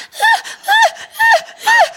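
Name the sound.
person imitating a dog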